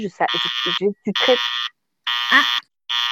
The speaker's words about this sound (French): C'est votre téléphone qui sonne comme ça Oui, oui, oui, c'est oui, c'est parce que sinon je sais pas que c'est mon téléphone.